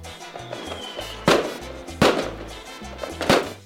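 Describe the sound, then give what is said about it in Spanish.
Three sharp fireworks bangs burst out at irregular intervals, each cracking loudly and trailing off in a brief echo. A faint whistle rises early on, before the first blast. “después un bailoteo para agradecer los milagros concedidos, torta y fuegos artificiales.”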